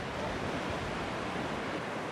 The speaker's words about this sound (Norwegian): Bølgene slår inn mot den australske østkysten, der de to marinestyrkene har trent sammen denne uka.